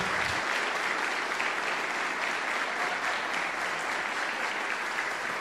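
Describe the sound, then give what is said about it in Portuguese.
A large audience claps steadily and continuously to welcome a guest speaker, a dense, even wash of applause that holds at a fairly loud level for several seconds without pause or speech. “Uma salva de palmas, por favor, para receber nosso convidado.”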